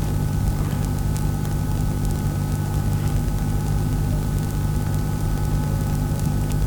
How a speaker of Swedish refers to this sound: så känns det som att de där flygplanen när de kommer förbi att han kommer aldrig hinna till flygplatsen när han låter så mycket redan här. Han kommer landa plask mitt i klostret.